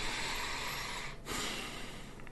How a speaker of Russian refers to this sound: Или дышать, например. Я дышу.